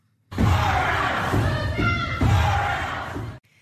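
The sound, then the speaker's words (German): A crowd of protesters in the spectator gallery of a legislature shouts demands in unison, loud, in a steady rhythmic chant lasting about three seconds before cutting off abruptly. “am 24. April kam es dann eben auch nochmal zu Protesten von Zephyr und ihren Unterstützerinnen von der Zuschauertribüne aus”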